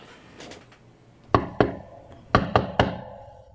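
Knocking on a door: two sharp raps, a short pause, then three more in quick succession, close and fairly loud over a faint background hum.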